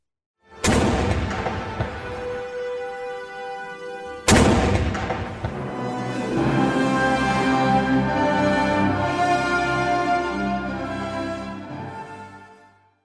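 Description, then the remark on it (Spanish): Two loud ceremonial cannon blasts go off about four seconds apart in Egypt during a parade transferring royal mummies' sarcophagi, attended by President Abdel Fattah al-Sisi, each booming and echoing, followed by a sustained, rolling tonal wash; no one speaks. “Ahí estuvo el presidente de Egipto, Abdel Fattah al-Sisi, y hubo cañonazos.”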